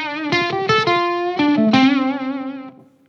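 A short run of distorted electric guitar notes through the mini version of an overdrive pedal, gritty and sustained and somewhat dirty even at lower gain settings, with a few picked notes and bends before the last note rings out and fades.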